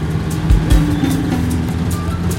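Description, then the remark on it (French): An old, well-worn public-transport minibus engine, the vehicle creaking all over, runs with a steady, rough low drone and a wash of rattling noise, punctuated by a couple of heavy thumps early on. “Le véhicule qui en était sans doute à sa troisième vie grassait de toutes parts. Le moteur râlait comme un fumeur de paume.”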